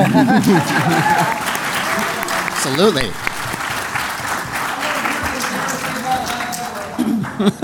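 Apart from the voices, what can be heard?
audience applause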